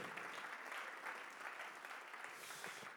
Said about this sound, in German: Komm, lass uns Jesus nochmal einen Applaus geben. Er ist gut.